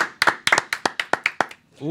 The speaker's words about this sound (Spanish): ¡Wow! Sí. un aplauso. Felicidades para él.